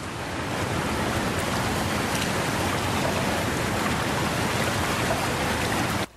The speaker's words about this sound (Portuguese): Represa jorra água.